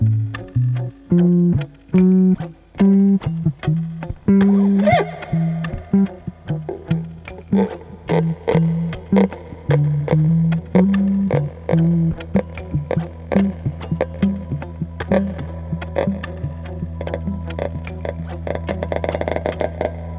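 Distorted experimental jazz-rock plays loud and continuous, with heavily effected, buzzing tones, sharp percussive hits and shifting melodic notes over a steady low drone, no voices. It is the opening track of a 2017 tribute album to a historic Italian prog band.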